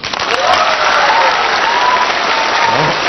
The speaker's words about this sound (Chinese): 支持他的掌声有多少？